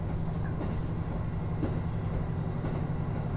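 A train runs steadily along the rails of the Nemuro Main Line (Hanasaki Line) between Nemuro, Akkeshi and Kushiro, a continuous low rumble with faint rhythmic clatter from the wheels and a few soft creaks, with no voices.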